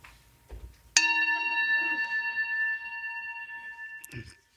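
A single meditation bell is struck once during a guided meditation, its clear, layered tones ringing out and slowly fading over several seconds with no one speaking, followed by a faint rustle.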